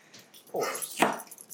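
A 15-year-old female pit bull gives a couple of rough, hacking coughs in quick succession, each a short raspy burst heard alone.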